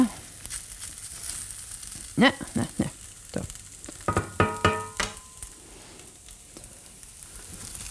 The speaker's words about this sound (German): Jetzt drehen wir es ein kleines bisschen runter, die Pfanne, wenn euch vorkommt, dass das brutzelt zu stark und es beginnt eher euch anzubrennen, als schön knusprig zu sein.